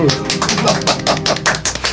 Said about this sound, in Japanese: 拍手